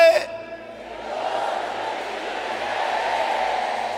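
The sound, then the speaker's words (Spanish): A large crowd shouts a phrase together in unison in a loud, sustained roar that swells and holds for several seconds, following a brief single voice at the very start. “Puede gritarlo a una voz conmigo.”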